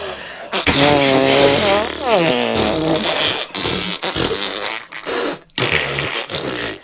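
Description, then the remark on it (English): A long, buzzy fart sound, apparently made with the lips, wavers up and down in pitch. It is followed by several shorter, raspy bursts, all fairly loud, with no talking over them. “fart any way you want i don't want to mess up my lipstick you don't have okay you can, you can just do it like you want.”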